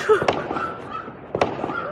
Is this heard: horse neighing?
no